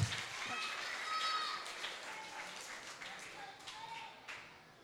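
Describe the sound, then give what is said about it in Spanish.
A group of children claps to applaud God for the fruits, a steady, uneven patter of sharp hand claps that runs for several seconds, with faint high voices drifting underneath. “Aplaudamos a Dios también por las frutas tan ricas.”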